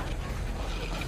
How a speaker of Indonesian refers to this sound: Waktu gue panik, tiba-tiba di belakang gue Pintu lemari baju bergerak makin lama makin kencang.